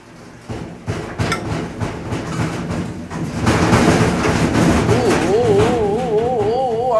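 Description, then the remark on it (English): A noisy washing machine churns with rhythmic thumping and clattering that swells louder midway through, and a wavering, warbling whine rises over the rumble near the end. “That's my that's my noisy ass washing machine.”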